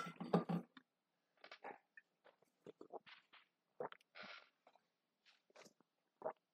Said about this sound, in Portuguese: Ai, pera aí, gente. Vou molhar a garganta aqui.